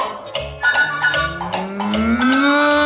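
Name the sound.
cow mooing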